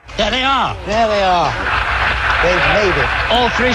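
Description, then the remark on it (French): A crowded mission control room breaks into sustained applause as a returning crew's capsule lands safely in the sea under three parachutes: a dense steady patter of clapping with excited voices calling out and cheering over it throughout. “Et on applaudit dans la salle tandis que les corolles des trois parachutes s'affaisse doucement dans la mer.”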